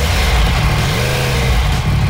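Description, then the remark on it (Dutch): The cold engine of a 2016 Yamaha R1 motorcycle revs loud, its deep rumble rising and falling in pitch through a couple of throttle blips, with no voices. “Ja, Yamaha R1. Hij is er, de Yamaha R1 uit 2016.”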